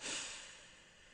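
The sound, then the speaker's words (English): A soft, airy breath drawn in through the nose during a guided breathing exercise, a single steady inhale of about a second that swells quickly and then slowly tapers off, quiet with no talking. “Inhale through your nose.”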